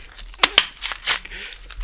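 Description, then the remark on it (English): Crinkling plastic wrapper of a dog bone being opened, with a couple of sharp crackling bursts followed by softer rustling and crinkles over a couple of seconds, moderately loud and heard alone. “I'm opening the dog bone.”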